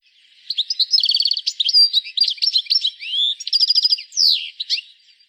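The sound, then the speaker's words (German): A European goldfinch calls and sings in a lively, continuous stream of bright, liquid twitters and tinkling chirps, clear, with brief pauses between bursts and no voices. “Das eine Mal Stieglitz, sein äh, Ruf das ist Stiegelit.”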